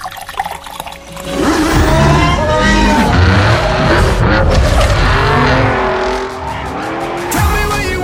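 A racing car roars at high speed, its engine pitch sweeping up and down while tires squeal and skid, loud, for several seconds with a brief lull near the end.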